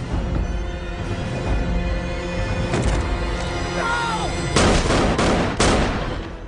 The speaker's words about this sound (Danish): og så kommer bare ligesom det dræbende skud, ikke?